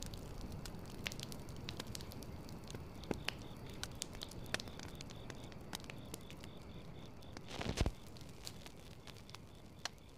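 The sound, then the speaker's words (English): Embers of a fire crackle softly and steadily, with irregular sharp pops and snaps over a low, continuous hiss; one slightly louder burst near the end. No voices. “I'll be up for a bit, watching the embers burn.”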